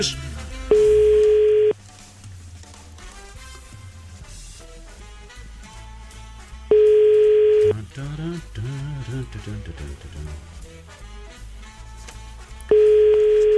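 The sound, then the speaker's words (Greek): A telephone ringback tone on an outgoing call that goes unanswered: three loud, steady one-second beeps spaced several seconds apart, sounding over continuous background music. “έλα να σηκώσουμε το τηλέφωνο.”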